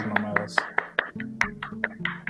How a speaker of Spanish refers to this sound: claro, un aplauso por el primer día.